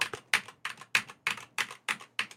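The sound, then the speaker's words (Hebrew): Eight crisp computer keyboard keystrokes tapped at a steady, unhurried pace, clear and held close to a microphone, with no talking, as keys are pressed one at a time for a listener to guess each letter by its sound. “אפשר לדעת מה הקלדתם לפי הצליל של המקשים”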